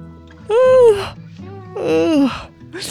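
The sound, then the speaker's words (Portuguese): Two drawn-out, voiced yawns from one person, fairly loud, each a sighing, wavering vocal stretch separated by a short pause, with a third beginning at the end. “Por que não paro de bocejar?”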